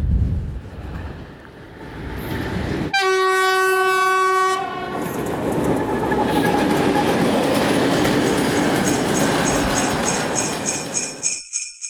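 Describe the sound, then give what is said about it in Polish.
A train pulls into a station with a loud, sustained horn blast, followed by the heavy rumble and clatter of railcars rolling past, ending in a high-pitched squeal of brakes as it slows. “I teraz niestety muszę przerwać, bo pociąg podjeżdża, także dokończymy to nagrywanie w domu.”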